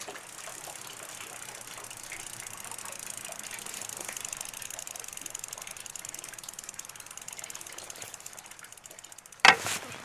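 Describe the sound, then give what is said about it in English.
A bicycle wheel turning round with a steady, rapid ticking like a freewheeling ratchet, a dense run of fine clicks continuing for the whole stretch, with one sharper knock just before the end. No one speaks. “I like the sound of the wheel going round.”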